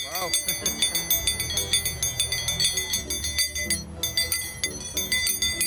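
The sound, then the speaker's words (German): The two blades of a pair of scissor-dance scissors, as used in the Andean scissor dance, clink together in a steady, quick rhythm, bright metallic strikes ringing clear over a low, murmuring background. “Mit fünf Jahren lernte er, beide rhythmisch klingen zu lassen.”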